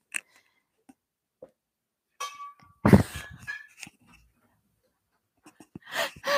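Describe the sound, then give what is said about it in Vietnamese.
A chair is kicked once during a livestream, giving a loud, sharp thud with a short metallic ring and rattle that fades out, surrounded by a few faint clicks and knocks. “mới vừa đá cái ghế”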